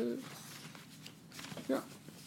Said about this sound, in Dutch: Oké, ik zit al in de papieren te bladeren